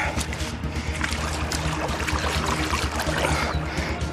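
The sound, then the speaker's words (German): Splashing steps wade through knee-deep, slippery water, a continuous churning with repeated surges as each leg pushes through, over a steady low rumble. “so, bis zum Knie geben mir das Wasser. Es ist rutschig. Aber ich bin durch.”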